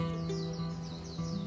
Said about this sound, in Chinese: 哇哦，听见我的窗外有好多的鸟叫声，有吗？听听看